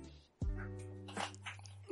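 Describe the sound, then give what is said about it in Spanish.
A dog lets out one loud, drawn-out bark that holds steady for over a second before breaking off, with faint voices in the background. “Ah, perro.”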